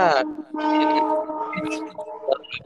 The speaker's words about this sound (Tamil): அந்த train sound ஒன்று வந்து கட் பண்ணுது